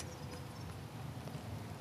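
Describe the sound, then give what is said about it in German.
Faint footsteps crunch through rustling leaves, a few soft irregular steps over a steady low outdoor rumble, quiet. “Schritte, also raschelndes Laub”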